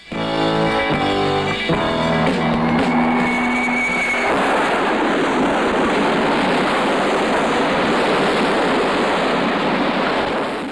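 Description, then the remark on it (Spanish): A high-end car speeds along a long, straight road, its engine racing loudly for about four seconds, then crashes into a stone wall, giving way abruptly to a dense, sustained roar of noise. No one speaks. “coche corría, corría, corría y ¡bumba! se estrellaba.”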